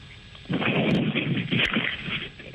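A heavy, loud thud of a person falling down, close by, spreading into a deep crashing rumble that lasts a couple of seconds before fading. No voices.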